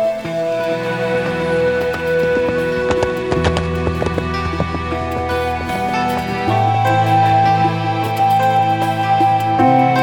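Horse hooves clip-clop in a series of hollow knocks as a traveller rides off again on his horse, heard at moderate loudness over a steady bed of sustained music with deep bass notes.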